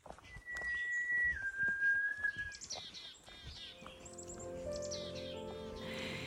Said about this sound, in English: Just as I get to the end of the second stanza, I hear whistling coming down the path.